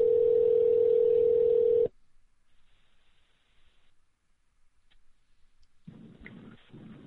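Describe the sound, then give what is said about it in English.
A telephone ringback tone sounds while a call connects, an odd double ring: a loud, steady electronic hum lasting about two seconds, then near silence before a faint voice begins at the very end. “It's like a double ring.”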